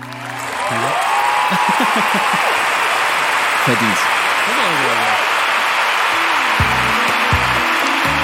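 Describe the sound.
A crowd breaks into loud, steady applause after a brief pause. The clapping holds at an even level to the end while a man speaks over it.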